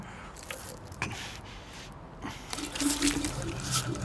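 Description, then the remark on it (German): A man urinates: a thin stream of liquid trickles and splashes steadily, growing a little louder and fuller in the second half, with a few soft drips and clicks early on; no one speaks. “Der Typ hat zwar offenbar eine ziemlich große Blase, aber er schüttelt schon ab.”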